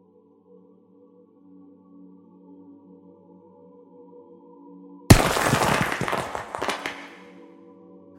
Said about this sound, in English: Brigida, the silent nun, and Mother Cyprian's right hand slammed the steel skull of a sledgehammer clean through the brick and stone foundation deep in the belly of Riverside.